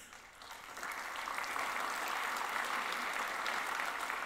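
An audience breaks into applause, the dense crackle of many hands swelling within the first second and then holding at a steady, fairly loud level without any talking.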